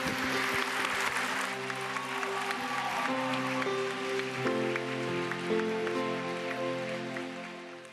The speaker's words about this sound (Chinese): 我们有一些礼物要送你，大大的掌声，在他们走的时候，哈利路亚，Amen。